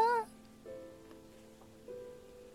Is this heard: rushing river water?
no